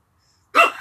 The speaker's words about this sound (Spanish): Ay, mi perro peleando la comida, que no se la vayan a comer. Pobrecito.